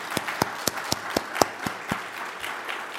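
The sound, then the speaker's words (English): Audience applause for a group of young people: a steady wash of clapping with several sharp, louder claps popping out in a quick regular rhythm for about two seconds, then tapering to a softer patter. “Let's hear it for all of these young people.”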